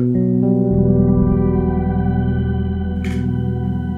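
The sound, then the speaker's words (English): A dense, sustained guitar pad drenched in shimmering reverb hangs frozen in place, steady and loud throughout, with a brief bright scratch of noise near the end: a guitar chord with a shimmer effect, held indefinitely by a freeze function that snapshots the played chord. “So what I like to do is put on the shimmer and build up a.”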